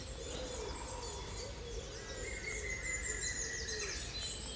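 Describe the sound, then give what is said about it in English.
A woodpecker's laughing call rings out in the woods in the morning amid a busy chorus of other birds, with steady low outdoor rumble underneath and no talking. “Which the woodpecker seems to find very funny.”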